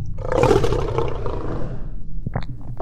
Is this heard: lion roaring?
yes